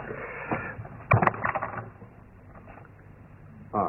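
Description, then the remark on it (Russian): A few muffled footsteps thud on a wooden floor as someone approaches a door, with a couple of sharper steps close together, then a quieter stretch before another soft sound at the end. No one speaks. “услышав шаги Нейлы, быстро идет к двери.”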